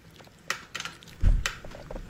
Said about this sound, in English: This is her chewing on a lozenge.